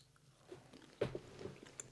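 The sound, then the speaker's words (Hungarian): Quiet chewing: a sharp bite and crunch of a salty, hot chili food, then a few soft, moist mastication clicks over a couple of seconds, with no talking. “Távolhajolva a mikrofontól nyomnyogunk.”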